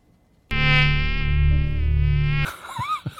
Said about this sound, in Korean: 그래서 오늘 보물 소리는 모기 소리로 정했습니다.